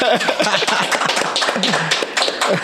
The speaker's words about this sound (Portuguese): Salva de palmas geral no estúdio aí.